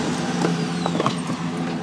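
A big truck beside the speaker's car rumbles steadily close by, a loud, continuous low engine drone with faint mechanical rattles over it and no voices.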